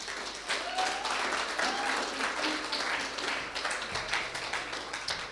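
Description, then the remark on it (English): An audience applauds a woman who is about to speak, clapping steadily for several seconds, a dense, even patter of many hands clapping together at a moderate level, with no talking over it. “Let's give her a give her a clap.”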